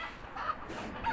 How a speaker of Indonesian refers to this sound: ini suara ayam ganggu banget iya ganggu kali ya tolong eh, ayam tolong lah